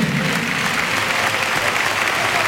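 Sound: stadium crowd ovation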